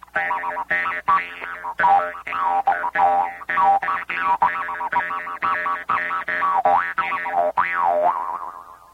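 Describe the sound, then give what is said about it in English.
A rare handmade Austrian Jew's harp twangs in a steady rhythm of sharp plucks, its droning buzz bending up and down in vowel-like wah sweeps, fairly loud with no talking. “This is an Austrian Jew's harp, a good one, handmade. Boy, listen to that.”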